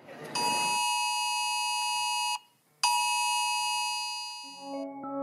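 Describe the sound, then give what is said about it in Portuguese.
A loud, harsh mobile phone emergency alert tone blares in two long sustained blasts separated by a brief pause, with a different lower tone starting near the end. “Sirenes, alertas de celular, aviso em rede nacional.”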